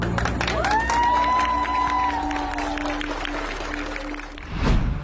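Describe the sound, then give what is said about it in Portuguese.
A large crowd claps and cheers outdoors at the port of the town of Manicoré, greeting the arrival of a boat after a nearly three-hour trip, a steady wash of applause with excited shouts rising over it, followed by a brief rushing burst near the end. “Desnutridos e desidratados foram levados da aldeia onde vivem para Manicoré, quase três horas de barco, que terminou com aplausos de uma multidão no porto da cidade.”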